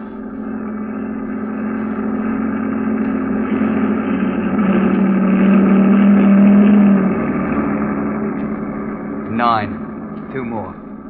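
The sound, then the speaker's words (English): A heavy, continuous engine rumble of a convoy rolling past, trucks followed by a command car, swelling louder toward the middle and then easing off, with a couple of brief higher-pitched sounds near the end. “Five trucks. Then a command car.”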